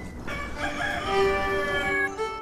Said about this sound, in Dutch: Hanen en kippen